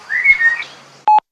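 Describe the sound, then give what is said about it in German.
A blackbird in a garden calls with a short, fluting whistled phrase lasting about half a second, heard as calling "Rüdiger", followed after a pause by a brief, loud, steady tone. No voices are present. “Aber warum ruft die Amsel denn ständig Rüdiger?”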